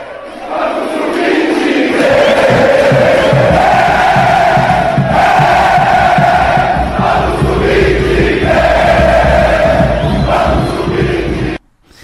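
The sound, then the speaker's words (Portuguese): A huge football stadium crowd, with the fans back in the stadium celebrating a victory, chants loudly in unison, a sustained roaring song with shifting pitch and a dense wash of cheering underneath, continuing steadily before cutting off abruptly. “e um show também pela volta da torcida, tor a volta da torcida para o estádio, fez a festa, e com a vitória, a torcida alimentou a esperança.”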